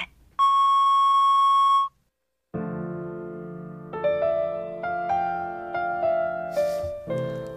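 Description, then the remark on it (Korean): A single loud, steady voicemail beep, sounding after a phone call fails to connect and is forwarded to voicemail, lasts about a second and a half, followed by a brief silence and then soft melodic music with plucked, piano-like notes. “연결이 되지 않아 음성 사서함으로 연결되며 삐 소리 후 통화료가 부과됩니다.”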